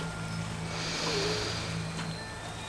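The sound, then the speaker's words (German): A deep, snorting breath drawn in and pushed back out, one slow airy cycle over a low steady background hum, with no voices. “Die beiden Munds schnaufen tief ein”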